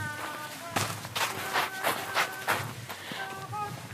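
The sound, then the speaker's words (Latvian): Steady footsteps of sandals crunching on a gravel road, about eight strides at an unhurried walking pace, with faint voices murmuring in the background. “Varbūt klausītāji tulīt arī dzirdēsi šo grāmatu čirkstoņu zem mūsu sandalēm.”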